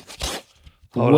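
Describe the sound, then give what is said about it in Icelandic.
A short, dry rasping scratch of fingernails over the textured original cardboard cover of a vinyl album, followed by a brief pause before someone starts speaking. “og þetta, þetta orginal cover er svona með þessum textjur hérna maður klórar hérna í coverið það er svona,”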